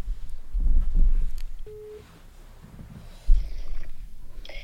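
A single short electronic phone ringing tone sounds once, fairly quiet, surrounded by low rumbling and handling noise, with no one speaking.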